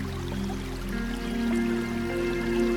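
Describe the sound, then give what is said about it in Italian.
A steady rush of flowing river water runs continuously beneath a sustained, humming musical drone, both holding an even level throughout with no voices present. “Meditazione sul Fiume per Svuotare la Mente”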